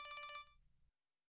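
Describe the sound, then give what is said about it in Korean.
A mother's mobile phone ringtone sounds briefly for an incoming call from a supermarket: a quick run of bright, warbling electronic tone pulses with a low hum beneath, lasting under a second before cutting off abruptly. No one speaks. “엄마 휴대폰에서 벨이 울렸다.”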